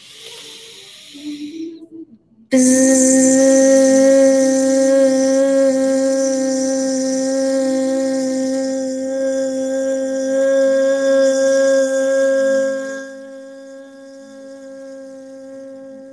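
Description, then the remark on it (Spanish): After a breathy inhale, a voice hums a long, steady, buzzing bee sound in a breathing exercise, done with eyes closed and thumbs closing the ears, holding one mid-low pitch loudly for over ten seconds before easing slightly softer. “Cerramos los ojos y hacemos un sonido de abeja tres veces.”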